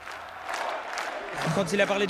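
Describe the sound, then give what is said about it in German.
At the end of an election campaign speech, a crowd applauds steadily, a dense wash of clapping, while cheering and shouting voices swell louder toward the end. “Großer Schlussapplaus, Jubel.”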